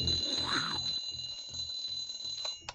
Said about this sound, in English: Before my alarm goes off, I dream about environmental disasters, sometimes with the occasional zombie thrown in.